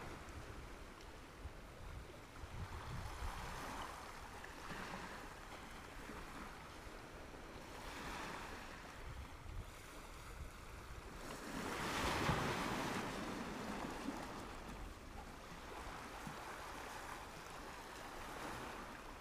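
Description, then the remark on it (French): Ocean waves wash onto the shore in a steady, broad roar, with surges swelling every few seconds and one louder break near the middle, wind rustling faintly throughout and no voices. “La mer résonne dans mes battements de cœur,”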